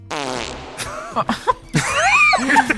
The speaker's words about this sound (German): Ich habe ich hab einen Furz gehört. Dementsprechend erwarte ich auch eine Furzantwort.